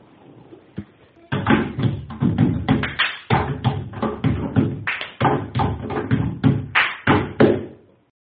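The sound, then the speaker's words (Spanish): Rhythmic knocking from bread dough being kneaded, a demonstration of what in Castile is called "hacer panaderas": a steady run of loud, dull thumps and raps in a quick, regular pattern that begins after a brief quiet moment and continues without any talking. “Un caso muy interesante es lo que en Castilla se llama hacer panaderas porque probablemente se hiciera durante el amasado del pan”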